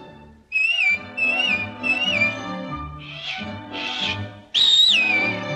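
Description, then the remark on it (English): Three short, wavering whistled phrases, then two breathy puffs of air that fail to make a tone, followed by a loud, clear whistle, all over soft orchestral music. “And anytime you need me, you know, just whistle. Like this.”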